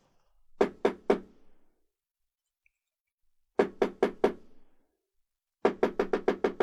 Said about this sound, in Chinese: 午夜的敲门声越来越急促，一个年轻男子不停的敲打着房门，他的脸色苍白，焦急无比。